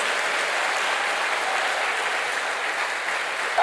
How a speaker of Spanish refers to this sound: Eso se merece un fuerte aplauso al que vive por los siglos de los siglos.